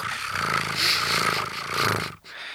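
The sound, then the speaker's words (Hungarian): A voice mimics a film camera starting up after the film is threaded into the camera and the button is pressed, making a steady, rhythmic whirring clatter for about two seconds before cutting off abruptly. It is fairly loud, with no other talk. “Befűztek, és hogy megnyomták azt a gombot, és azt hallott, hogy”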